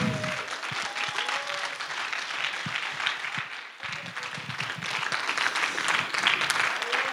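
A large audience applauds steadily and loudly for several seconds to welcome the first speaker of the evening, a dense, continuous wash of clapping with a few scattered shouts and cheers rising from the crowd.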